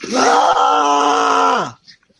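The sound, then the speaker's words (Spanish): A single loud, sustained shout like a battle cry, voiced for a character charging with a sword raised, held for nearly two seconds at steady pitch before sliding down and cutting off, strained, performed by one voice. “Yo, en el momento que me dice eso la capitana, salgo con la espada en alto, gritando.”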